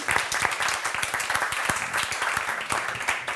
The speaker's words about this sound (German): Ein kleiner Applaus vielleicht schon mal